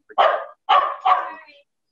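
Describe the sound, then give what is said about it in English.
Several pet dogs bark as family members walk in the door, three times in quick succession, loud, each bark a rough, full burst with a short gap before the next two run together. “So, and now my esposa too, and they're gonna bark.”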